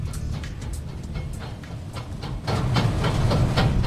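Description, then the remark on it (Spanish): An olive oil mill run by the firm La Ibérica in Bailé, Jaén, works at full capacity, its machinery running nonstop, a dense low rumble with repeated hissing, clattering bursts on top, growing louder and busier about two-thirds of the way through. No one speaks. “A pleno rendimiento esta almazara.”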